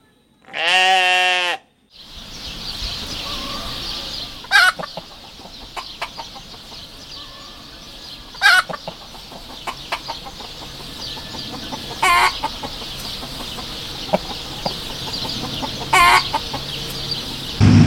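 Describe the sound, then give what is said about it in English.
A loud, harmonic animal bleat or call opens a farm scene, followed by a busy barnyard ambience with repeated sharp clucks and crowing-like bursts every few seconds over a steady background hiss. “For that, we take you to 10 uninterrupted minutes of farm sounds.”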